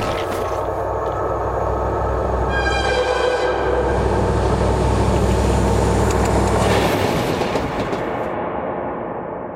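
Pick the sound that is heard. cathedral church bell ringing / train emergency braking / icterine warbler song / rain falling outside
train emergency braking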